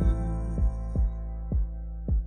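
A heartbeat effect in a song from the musical Hamilton, representing Burr's heartbeat: deep, booming thumps pulse in a slow, steady rhythm over a sustained low instrumental drone, with no voices.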